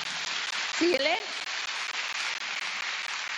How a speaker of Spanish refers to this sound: Dale un aplauso al Señor porque yo estoy emocionada.